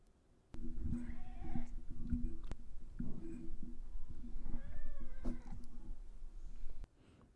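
A cat meows several times, its drawn-out, wavering cries rising and falling over a steady low droning hum that runs throughout.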